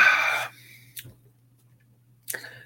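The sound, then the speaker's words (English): A quiet sip of a stout beer with vanilla and lactose, followed by a soft swallowing gulp and a breathy exhale, over a faint low electrical hum with no talking. “Um, I need another sip of this.”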